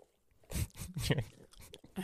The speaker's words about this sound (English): Let me spit my gum out.